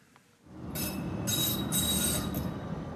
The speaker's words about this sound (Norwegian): Lyden av miljøvern i praksis langs trikkeskinnene i sentrum av Oslo derfor i hovedstaden velger mange trikk, buss eller bane.